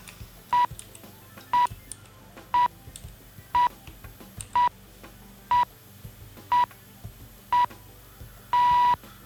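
A steady series of short electronic beeps, one each second, from a timer counting down, ending in a single noticeably longer beep. The tones are clear and prominent over a faint background.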